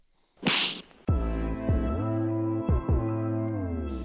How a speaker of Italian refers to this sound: Va bene, dai, andiamo allo schiaffo della settimana, al primo schiaffo del 2024.